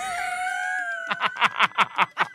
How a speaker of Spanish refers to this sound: El propio comandante de la policía de Barranquilla asegura que el animal fue entrenado por los delincuentes. Este loro empezó a, alertar, llamémoslo así, a las personas que estaban ahí. Empezó a gritar que corre, corre.